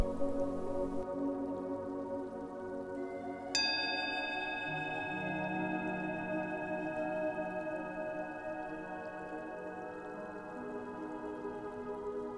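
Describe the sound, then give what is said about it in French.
A meditation bell is struck once, its bright, high ringing tones hanging in the air and fading very slowly over a soft, steady background hum. No one speaks. “Écoutez la cloche jusqu'à la fin et laissez-vous quelques secondes pour écouter mes derniers conseils.”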